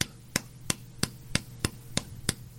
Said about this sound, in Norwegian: Det er en helt vanlig jernstang. Så har jeg tatt og pussa endene sånn at de ikke er skarpe. Og den er til slag. Du kan høre